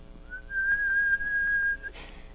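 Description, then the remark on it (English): A man at a window he has pushed open gives a single sustained, shrill whistle that holds one steady pitch for about a second and a half, loud, then cuts off, followed by a brief breathy rustle. “He pushed it open and gave a shrill whistle.”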